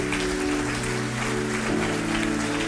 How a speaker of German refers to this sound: Wollen wir da zusammen mitwirken? Dann lasst uns einfach mal klatschen, damit wir was machen können. Amen.